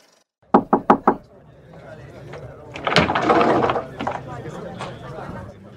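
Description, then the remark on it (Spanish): Four quick, evenly spaced knocks rap loudly on the front door of don Pancracio's house, followed by a few seconds of softer rustling and shuffling noise. “Esta historia comienza en la puerta de la casa de don Pancracio.”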